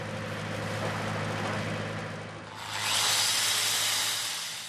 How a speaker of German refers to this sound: Mit dem Winkelschleifer schleift der 24-Jährige die Nahtstelle aus.